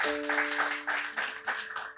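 Several people clap together in a steady, dense burst of applause lasting a couple of seconds, moderately loud and close, with a faint low hum underneath at the start.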